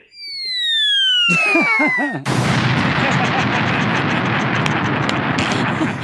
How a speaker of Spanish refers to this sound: Escuchamos la pues explosión.